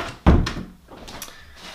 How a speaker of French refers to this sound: attends, je vais fermer la porte parce que il fait frais.